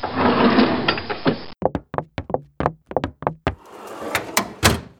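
A desk drawer slides with a scraping rumble, then rattles and clunks through a quick series of sharp wooden knocks before sliding shut with more scraping. Fairly loud, no voices.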